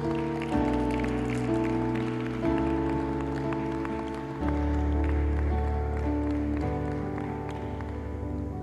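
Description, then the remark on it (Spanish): An audience claps steadily, applauding Jesus, a dense patter of applause spread under loud, sustained keyboard chords that shift every couple of seconds. No one speaks. “Apláudele fuerte a Jesús.”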